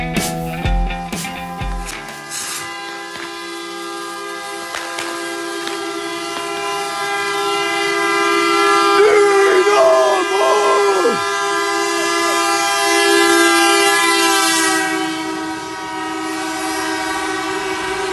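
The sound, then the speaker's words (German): A dense, continuous chorus of horns blares from many vehicles at once as football fans on road 172 welcome the Dynamo team back from Magdeburg on Saturday evening, overlapping sustained tones holding steady throughout, with a few brief rising and falling calls breaking through midway. “So klang es am Sonnabendabend bei der Rückkehr der Dynamos aus Magdeburg.”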